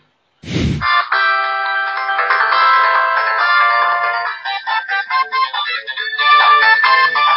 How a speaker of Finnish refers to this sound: Mikä peli? Sonic. Vittu kun musaa soi vielä.